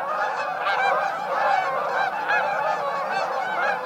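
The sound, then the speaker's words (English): A flock of migrating Canada geese, returning from nesting in Canada and Alaska, honks continuously overhead, many overlapping calls forming a steady, chattering chorus, with no one speaking. “The migrating Canada geese heard here are returning from nesting in Canada and Alaska.”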